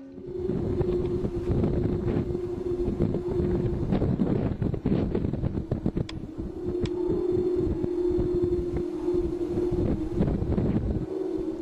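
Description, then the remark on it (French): A 3-metre-tall wind-played sound sculpture made of many steel tubes drones a low, steady hum as wind rushes into the tubes, amid heavy gusty wind rumble, the tone briefly fading and returning midway and at the end. “Ça, c'est l'instrument à vent par excellence, hein, parce que c'est le vent qui le fait fonctionner.”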